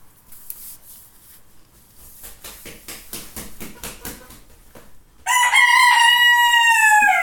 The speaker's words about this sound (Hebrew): אני אוהב את ההכנות שלו, תמיד יש לו את ה... הוא קודם מנופף חזק חזק בכנפיים. צ'יט! אני אוהבת אותך. כל המצות שלו סומרות, ואז מיישר את הצוואר ו... בוא. קוקו ריקו.